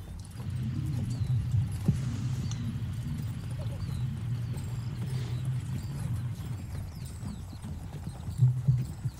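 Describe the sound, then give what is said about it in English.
Steady clip-clop of the hooves of a Phantom Steed on the road keeps up an even trotting rhythm throughout, with a low rumbling undertone and a brief louder scuffle near the end. “Um, next morning, I will re- also recast Phantom Steed and hit the road.”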